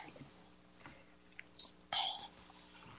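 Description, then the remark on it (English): Two short, airy sucking bursts of someone slurping a drink, the second longer and gurgly, after a quiet start with no talking. “But baby, if you don't quit slurping this drink, whatever you doing, oh me?”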